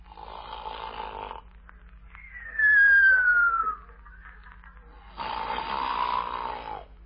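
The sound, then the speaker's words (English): A loud snore from a soldier repeats: a raspy, rattling inhale, then a high whistling exhale that slides downward, followed by another rasping snort. No one speaks. “Then why were you snoring?”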